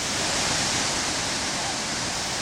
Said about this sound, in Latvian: Tas patiesi bija iespaidīgs skats, kas pavērās Livingstona acīm. 1,7 km plata un te jau 120 metru augsta ūdens siena, kas ir ne tikai lielākais ūdenskritums Āfrikā, bet viens no grandiozākajiem pasaulē.